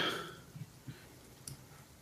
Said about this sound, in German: Ähm, der Würfel rollt.